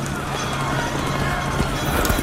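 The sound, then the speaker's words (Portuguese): A dense, steady roar of many horses galloping together as Constantine's men crush Maxentius's cavalry in a battle between Romans, hooves blurring into a continuous loud rumble of battle noise, with indistinct voices mixed into the din. “os homens de Constantino estão a esmagar a cavalaria de Maxêncio.”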